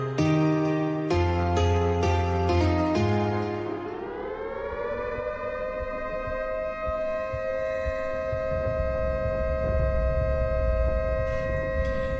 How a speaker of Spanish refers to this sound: Esa alarma que escuchan. ¿Qué es? ¿Qué es? Pará, ¿qué, qué estalló? ¿Qué pasa? Esa alarma es porque. Ay, Es, es bienvenidos a, a la planta nuclear.